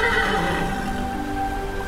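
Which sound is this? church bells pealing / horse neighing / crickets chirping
horse neighing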